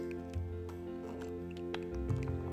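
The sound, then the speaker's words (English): Soft slurping of a quick sip of hot coffee, with a couple of quiet wet mouth sounds and a faint swallow against a low background hum; no one speaks. “Need to take a quick sip of coffee there.”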